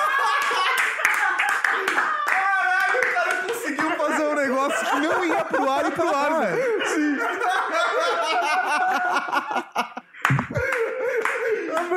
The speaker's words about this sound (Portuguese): Tem que ir pro ar agora. e sobem as palmas digital.